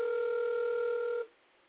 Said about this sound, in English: Let me see if this person answered the phone. They know I don't ever call, so they'd be like, "Can they calling me, really?" Answer the phone.